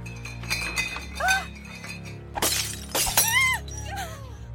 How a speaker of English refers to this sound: two bottles of wine suddenly flew off the wine rack and were thrown across the room, smashing loudly against the opposite wall.